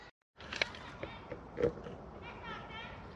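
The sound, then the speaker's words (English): Children shout and play in a river outdoors, their high voices rising in brief bursts over a steady wash of flowing river water. “There's some kids playing in the river down there.”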